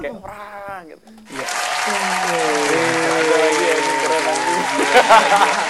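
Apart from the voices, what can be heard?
audience applause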